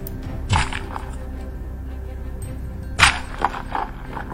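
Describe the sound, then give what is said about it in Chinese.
Two sharp, brittle cracks of a candy butterfly's wing shattering into pieces when struck by a thrown vegetable, about two and a half seconds apart, the second trailed by a smaller snapping crackle as candy fragments fall. No voices are heard. “只听“乒”“乓”。两声，糖果蝴蝶的一只翅膀已经彻底被击碎，糖果碎片哗啦啦地掉落了下来。”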